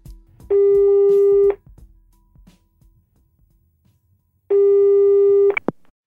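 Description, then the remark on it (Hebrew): Two long, steady electronic ringback tones, each about a second, separated by a pause, heard loud over faint background noise with no one speaking, as a phone call to a friend is placed. “אז אני אתקשר שנייה לחבר הכי טוב שלי.”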